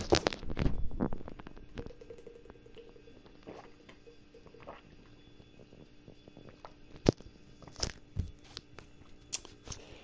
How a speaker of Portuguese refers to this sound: Sei lá, segura aí que eu vou tomar um, uma, uma água aqui, cara. Eu, eu, gosto do som da, da tampinha da garrafa abrindo.